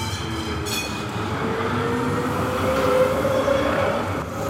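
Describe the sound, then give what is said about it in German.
A tram rumbles past on street rails in a city, right on the tram line, a steady low mechanical roar with faint metallic whine and a brief squeal swelling near the end, no voices present. “Ich glaube, für alle Menschen, die nicht in der Stadt wohnen, wäre das wohl die Hölle, hier direkt so an der Straßenbahnstrecke zu wohnen, oder?”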